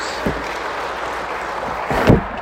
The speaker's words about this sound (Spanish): Dale fuerte aplauso al Señor. Gloria a Dios.